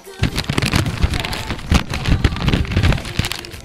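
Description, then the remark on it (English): A long sheet of paper is unfolded on air during a radio show, producing a steady stream of crisp, irregular crackles and rustles with a few sharper snaps, fairly loud and with no talking over it. “I will open this up on the air.”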